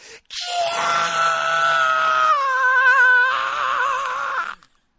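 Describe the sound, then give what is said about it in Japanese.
A voice imitates the long, shrill scream of junior high school girls at a haunted house, holding a high wavering pitch for about four seconds with a shift partway through, loud with no other sounds. “お化け屋敷からもう悲鳴がずっと上がってんのよ。は中学校の女の子、中学生の女の子たちがもう、キ”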